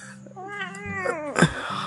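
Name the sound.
cat meowing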